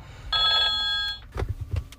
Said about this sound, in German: Jo, der Sound gerade, das war ein Auftrag. Das ist so, ist halt wirklich live, ne? So, also wirklich aus dem Taxi so.